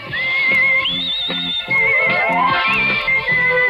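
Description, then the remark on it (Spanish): A bright whistled melody carries a catchy theme tune from a 1980s TV programme over steady, bouncy instrumental backing, gliding between notes at a lively pace, loud throughout with no talking. “No, era el silbido. La del silbido.”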